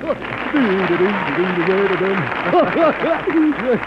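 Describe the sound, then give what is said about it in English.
Steady applause from an audience, for Goofy as he takes his bow, fills the background throughout, a dense wash of clapping beneath a voice that speaks and breaks into a series of goofy, rhythmic chuckles near the end. “That applause is for you.”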